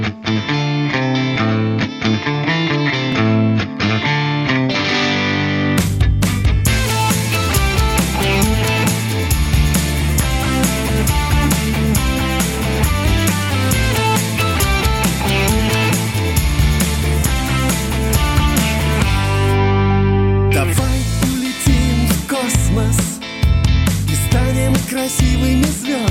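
A Russian-language pop song plays steadily and loudly, with dense instrumentation, a driving beat and layered harmonies; the arrangement builds after a sparser opening and briefly thins near the end.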